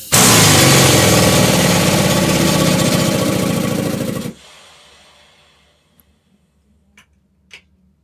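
A loud, steady rush of pressurized air being let out again blasts for about four seconds, then cuts off abruptly, leaving near-silence broken by a few faint clicks and ticks.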